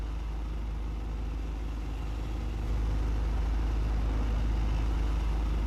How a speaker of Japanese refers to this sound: 水の近くに住みたくて海に近い川沿いのマンションを見つけた引っ越してから気がついたんだけど朝早い時間に船がいくつも通るディーゼルエンジンの低い音がまだ眠りの淵でもたついてる街を這うようにやったあれが苦手だった